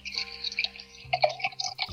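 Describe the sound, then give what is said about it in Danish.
A 9.8 percent tripel beer from the Humlesand brewery pours steadily into a glass with a bright, fizzy splashing and gurgling, fairly quiet, with small bubbly bursts toward the end. “Og jeg hælder den op.”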